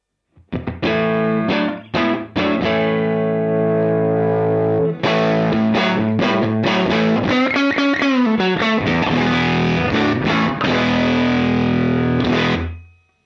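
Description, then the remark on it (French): An electric guitar played through a Universal Audio Ruby 63 pedal emulating a VOX AC30 Top Boost amp, on its normal channel with the neck pickup, with crunchy, gritty chords and riffs ringing out loud, including a bending phrase, with no talking. “mettez un VOX-AC30 Top Boost dans votre pédalier”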